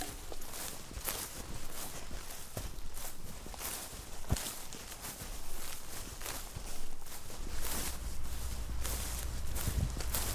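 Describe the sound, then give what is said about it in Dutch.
Steady footsteps of people walking through a valley crunch along an outdoor path at a walking pace, with a soft breezy rustle of surroundings underneath and no voices. “Maar eerst lopen we nog een stukje door het dal.”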